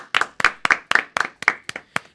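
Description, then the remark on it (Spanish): Audience applause for a band's conga player back from injury, in New York City: about eight crisp, evenly spaced claps, a steady rhythmic clapping at roughly four per second, fairly loud, with no talking over it. “Con un aplauso para el chavo que se siente.”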